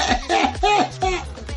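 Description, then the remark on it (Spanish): A person imitates the cough of a dog that keeps coughing, thought to be from licking itself and getting full of hair: four or five rough, voiced hacking bursts in quick succession, fairly loud and raspy, with a tonal, throaty edge. “Porque está tosiendo así.”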